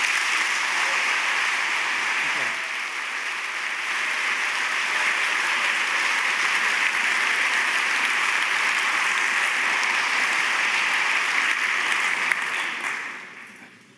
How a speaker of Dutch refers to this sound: Het woord is nu aan Frans Dwaal. Geef hem een heel hartelijk applaus.